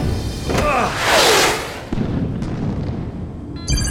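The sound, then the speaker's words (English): A loud, rumbling explosion of missiles hitting mountains roars up and slowly fades, followed by scattered blasts and crackling debris. “The missiles! They must have hit the mountains.”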